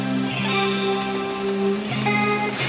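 Steady summer rain patters continuously on a grassy meadow in an even hiss, with sustained low musical tones drifting over it and shifting pitch a couple of times.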